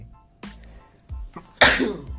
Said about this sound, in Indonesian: bersin juga alhamdulillah